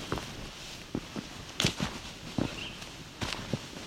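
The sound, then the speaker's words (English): Footsteps crunch along an outdoor path at a steady walking pace, moderately loud, over a soft bed of ambient noise with no talking. “We keep moving.”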